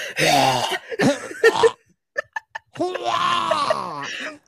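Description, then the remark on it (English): A person imitates their parents' 13- or 14-year-old Bernese Mountain Dog choking on food, a bull penis chew, as it swallows the last two inches on the bed: strained, croaky gagging sounds, a few short clicking gulps in the middle, then a long rasping retch. The voice is fairly loud. “like the bull penises, and he will eat like he'll swallow like the last two inches, and then just like like like you just hear choke on it, like on our bed though.”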